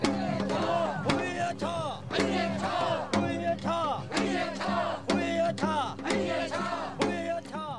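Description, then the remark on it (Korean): A crowd of voices chants a tug-of-war folk song of Jinju, South Gyeongsang Province, Korea, sung at the Daeboreum first full moon festival, in loud, rhythmic unison, with sharp percussive beats punctuating the singing at a steady pace. “대보름의 경남 진주에서 하던 줄다리기 노래입니다.”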